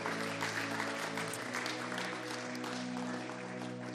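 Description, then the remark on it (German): An audience claps steadily in sustained, dense applause, a continuous wash of many hands at even loudness, with a low sustained tone, likely organ or keyboard, holding underneath throughout. “Komm, lasst mal einen großen Applaus geben, auch der Wertschätzung.”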